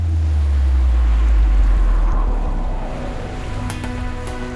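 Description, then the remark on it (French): Ocean surf breaks on the shore in a deep, continuous roar that swells to a peak and then slowly recedes, heard alone with no voices. “ce ressac qui vous apaise, si vous deviez l'écouter nuit et jour sans pouvoir y échapper, au bout de combien de temps deviendrait-il un supplice pour vous”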